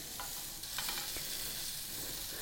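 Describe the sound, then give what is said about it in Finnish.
Steady sizzling of food frying in a pan, with a few brief scraping clinks of a utensil stirring near the start, no voices. “Mutta tosiaan jompikumpi, joko sä paistat ne noiden broilereiden kanssa yhtä aikaa, sit kun on käännetty, tai sitten kokonaan erikseen.”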